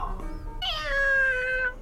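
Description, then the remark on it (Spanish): A cat lets out a single drawn-out meow lasting about a second, fairly loud, preceded by a softer, brief vocal sound. “El padre, ponderando con una orgullosa sonrisa la inteligencia del gato, decía, Ninguno es capaz de hacer esto.”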